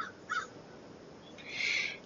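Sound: crow cawing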